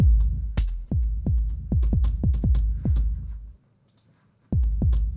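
Deep, booming drum-sample thumps for slower songs repeat in a steady heartbeat-like pulse, loud, over a low rumbling bed. They stop for about a second, then return.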